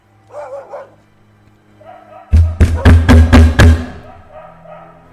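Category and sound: household object, knocking on a door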